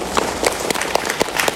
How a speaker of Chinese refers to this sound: 哇，给自己一个热烈的掌声哦！